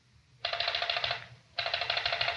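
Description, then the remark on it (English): A rotary telephone being dialed to call Riley, on a line that gets no connection: two loud bursts of rapid, even ratcheting clicks, each under a second long, separated by a short pause, over a faint low hum. No voices. “get on the phone and call Riley.”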